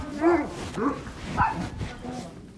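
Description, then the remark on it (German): Several dogs bark and yip in quick, overlapping bursts, with a few higher whimpering yelps mixed in, lively over a busy outdoor background, at a dog hospice with a fenced 8000-square-metre meadow near the Rhine. “Die eingezäunte Wiese des Hundehospizes misst 8000 Quadratmeter.”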